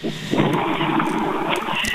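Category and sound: vehicle, car interior noise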